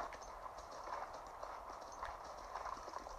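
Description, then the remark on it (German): Horse hooves gallop in a video game as the player rides past monsters: a steady, rapid clip-clop rhythm of repeated soft thuds layered over a constant midrange hum of game background sound, with no voices. “So, wenn ich, wenn ich reite, kann ich den Monstern einfach ausweichen, weil ich reite einfach vorüber.”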